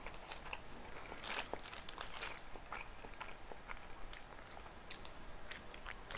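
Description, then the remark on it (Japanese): Steady chewing and biting of bread, with soft crunchy bites and moist mouth sounds repeating irregularly for several seconds, no talking. “このパン飽きるわ同じものばっかりだからあと話すのに夢中で全然食べてなかった”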